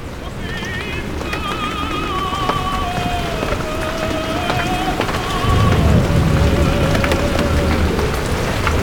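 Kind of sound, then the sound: nature, rain falling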